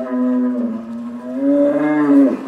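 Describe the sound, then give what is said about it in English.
A hornless, gene-edited cow at a university campus feedlot gives one long, drawn-out moo, steady, rising slightly in pitch toward the end before cutting off. No voices are heard alongside it. “Alison is talking to her hornless cows, and well, they're talking back.”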